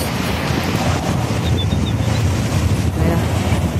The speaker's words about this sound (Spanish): Uy, no mames, aquí está bien vergas puro pinche, mar bien picado, como sus traseros culeros.